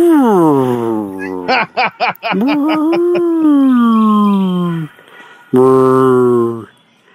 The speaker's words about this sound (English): that was 20 minutes of whale songs, but Tony edited it down to three minutes